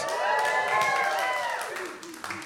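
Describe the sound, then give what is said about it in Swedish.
A worship audience cheers for Jesus with sustained, overlapping voices while scattered clapping patters underneath, fairly loud and steady before easing slightly toward the end. “Får man höra ett jubelrop till, till Jesus?”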